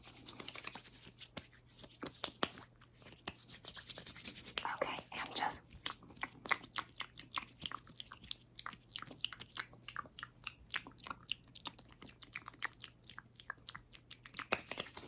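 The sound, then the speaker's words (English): Soft wet squishing and rubbing as moisturizer lotion is worked into the skin of a face, in a steady run of quick sticky clicks. A brief whisper comes through near the start. “So we're just gonna add a little bit of moisturizer on that face so we can make sure that she stays soft, moisturized, moist.”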